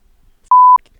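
A single steady electronic censor bleep, a clean pure tone lasting about a quarter second, loud and isolated against near silence with no voices.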